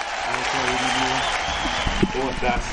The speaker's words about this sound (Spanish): así que recibimos con un fuerte aplauso